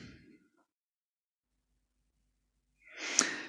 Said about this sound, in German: Und dann kann es gut sein, sich nochmal zu recken und zu strecken. Oder zu gähnen. Gähnen ist auch gut, um Anspannung loszuwerden.